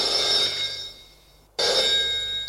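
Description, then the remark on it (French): A telephone bell rings in two loud, bright bursts separated by a brief silence, the metallic ringing sustained with no voices present. “Le téléphone sonne.”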